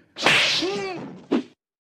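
sound effect, slap sound effect

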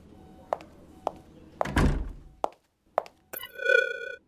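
household object, door being closed

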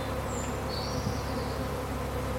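insect, swarm of bees buzzing

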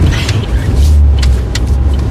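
vehicle, car engine revving

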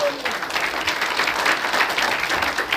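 crowd, audience clapping hands

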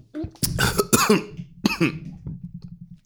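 human body sound, coughing

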